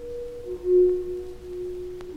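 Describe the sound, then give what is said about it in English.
A recording of Leland Sprinkle playing the stalactite pipe organ in the Luray Caverns: a few pure, sustained tones ring out at a steady, moderate level, blending into one another, with one note swelling briefly louder. “And what you're hearing now is a recording of Leland himself playing the stalactite pipe organ in the Luray Caverns.”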